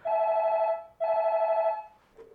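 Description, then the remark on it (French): A telephone rings twice, each ring a steady, buzzy electronic tone lasting under a second with a brief pause between, followed by a faint short blip at the end. No one speaks. “Personne n'a répondu à l'appel cette soirée-là.”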